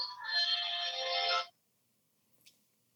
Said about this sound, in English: just started hearing music in my ear. I, I think it was my, sorry, I think I forgot to turn my phone completely off.